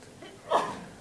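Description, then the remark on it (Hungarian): A single short sneeze bursts out about halfway through, sharp, then fades quickly into quiet background noise. “Egészségedre.”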